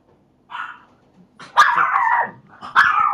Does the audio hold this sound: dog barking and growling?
yes